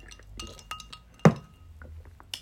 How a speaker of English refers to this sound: I'm drinking Pepsi Max with a hint of lime out of a regular pint glass with some ice. Bit of ASMR for you there.